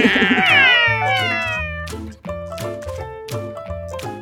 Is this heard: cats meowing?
yes